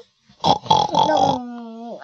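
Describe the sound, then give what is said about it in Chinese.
A person voices a pig, making a run of rough, nasal grunting snorts that blur together, then trailing into a drawn-out, higher whiny tone that bends at the end. “猪会这样。”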